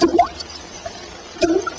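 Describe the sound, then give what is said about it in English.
Water drips in a slow, sparse rhythm on a track of a haunted house sound album: two distinct liquid plinks about a second and a half apart, with a faint drop between them, set against a quiet, hollow background. “I don't know, but there's one track that's dripping water.”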